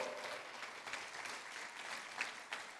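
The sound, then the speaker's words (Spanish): An audience claps for the Lord during a church sermon in a steady wash of dense, overlapping applause that holds at an even level throughout, with a few sharper individual claps standing out near the end. “Si usted lo cree, le da palmas al Señor, Dios poderoso”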